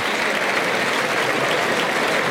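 A large bullring crowd gives a loud, sustained ovation to a bull that will not give up, thousands of hands clapping in a dense, steady roar of applause with no break and no voices standing out.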